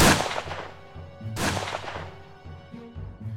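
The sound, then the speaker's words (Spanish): Two loud rifle shots, about a second and a half apart, killing a Kodiak bear, each a sharp crack followed by a long, booming echo that rolls away. No voices. “Tras la aproximación, dos disparos acabaron con el Kodiak.”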